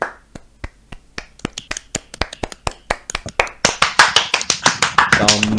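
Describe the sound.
An audience claps in a steady rhythmic beat, starting thin and sparse, then swelling louder and fuller as more hands join, with crowd noise and voices rising underneath toward the end, as the group gathers again and someone is welcomed in with big applause.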